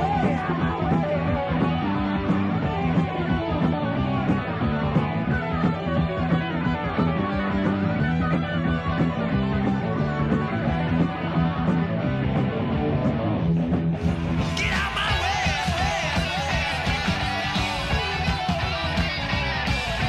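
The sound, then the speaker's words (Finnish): The album version of a heavy metal song from the band's debut album plays loud and dense throughout, with distorted guitars and pounding drums, shifting into a brighter, more intense section about two-thirds through. No one speaks. “Versus sitten tämä albumiversio. Kuunnellaan.”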